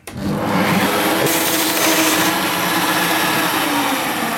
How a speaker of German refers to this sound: Sag mal, was, was schleifen wir jetzt zuerst? Die Gartenschere? Die zum Beispiel, die brauche ich gar nicht auseinanderbauen, die kann ich so schleifen.